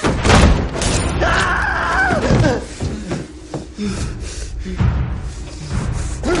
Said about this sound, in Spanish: Vuelve en sí, alcanza con esfuerzo el pomo. Jeremy cierra la puerta de una patada.